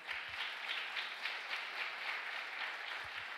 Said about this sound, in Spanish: Un aplauso fuerte.